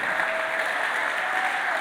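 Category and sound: crowd, audience clapping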